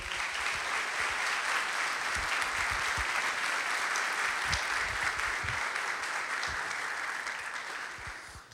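An audience applauds steadily for several seconds, a dense wash of many hands clapping at an even, fairly loud level before the sound thins and fades toward the end.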